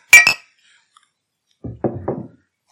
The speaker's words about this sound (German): Oh, ich habe mal, ich habe gerade unfassbar nah vom Mikrofon angestoßen. Ähm, ich weiß nicht, wie du es durch die Leitung gehört hast, aber für die Zuhörer muss das fürchterlich laut gewesen sein.